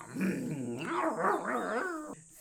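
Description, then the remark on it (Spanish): A dog growls and barks in one continuous, rising-and-falling burst lasting about two seconds, then cuts off abruptly; no one speaks. “El perro recibió una bola y continuaron el camino.”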